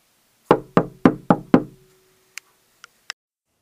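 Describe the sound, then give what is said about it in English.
Five firm, evenly spaced knocks on the solid wooden front door of a house, resonant, followed by a few faint, sharp clicks before silence. “One day I answered a knock at my front door.”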